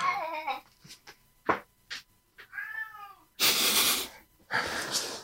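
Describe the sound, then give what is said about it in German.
A cat meows several times, drawn-out wavering cries separated by short pauses, followed by a couple of loud, breathy hissing bursts of noise. “Ich guck mal kurz, was die Katze will.”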